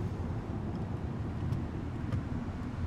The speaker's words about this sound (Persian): بالاخره نزدیک یه کوچه ماشین رو نگه داشتن.